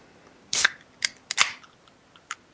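A can of cola is cracked open: a few sharp metallic clicks and pops, one followed by a brief fizzing hiss, with no voices.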